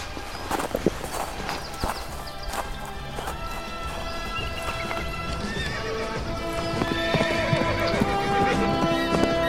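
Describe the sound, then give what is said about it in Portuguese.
Several horses whinny with high, wavering calls while hooves clip-clop in an uneven, busy rhythm, the sounds layered and fairly loud throughout without any talking. “Eu vou tentar sabotar os cavalos do xerife e dos seus ajudantes.”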